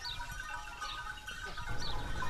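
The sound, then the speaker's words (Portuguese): A large herd of over 200 goats bleating together as they move in a line toward their shed, overlapping calls rising and falling over a steady rumble of hooves and movement, moderately loud, with no talking. “200 e tal cabras em carreira em direção à corte.”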